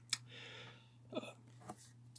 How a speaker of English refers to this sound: Excuse me. I had to burp.